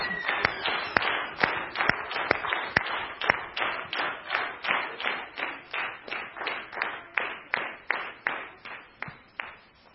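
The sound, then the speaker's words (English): A church audience claps together in a steady rhythm as the children head out to their class, about two to three sharp claps per second, holding the beat for ten seconds before growing slightly softer at the end. No clear voices stand out. “And we're going to cheer as they go out.”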